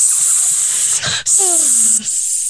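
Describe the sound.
A person imitates a snake, Slytherin-style snake talk, hissing in long, breathy bursts, the loud sibilant hiss broken by a brief voiced glide in the middle before hissing resumes.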